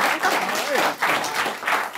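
A room full of people applauding steadily for a writer about to read her story, a dense wash of clapping that stays loud throughout, with a brief voice rising faintly underneath near the middle.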